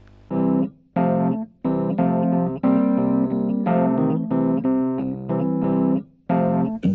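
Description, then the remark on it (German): A short musical jingle for the "Hero of the Week" (Held der Woche) segment: bright, sustained synth-like chords in several rhythmic bursts, each separated by brief gaps, with rich harmonics and a steady low bass line, loud and without any speech. “Ich möchte jetzt kurz einmal den Jingle für den Helden der Woche einspielen.”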